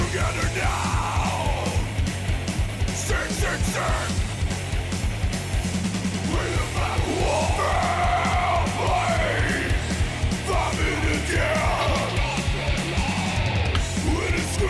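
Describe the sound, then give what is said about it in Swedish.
Loud, dense punk recording with fast, driving D-beat drums and distorted guitars under hoarse shouted vocals, playing continuously at a steady, full volume throughout. “Det är ju svinmycket D-takt på den här skivan.”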